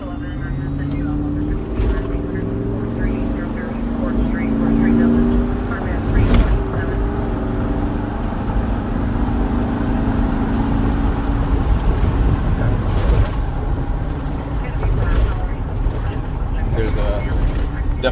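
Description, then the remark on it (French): Steady low engine rumble from inside a moving car with a red light on as it starts its patrol, continuous and fairly loud, with occasional clicks and rattles and muffled talking underneath. “Lumière rouge allumée dans la voiture. Et la tournée va pouvoir commencer.”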